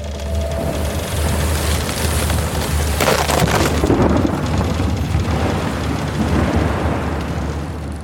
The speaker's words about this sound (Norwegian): Og når det da eh, la seg på tvers av vinden, så hører de det ingen sjømenn ønsker å høre lyden av seil som revner.